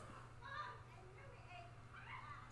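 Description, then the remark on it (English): Muffled screaming from outdoors, high-pitched voices rising in two bursts over a steady low hum, with no nearby speech. “Oh, someone open? is screaming outside.”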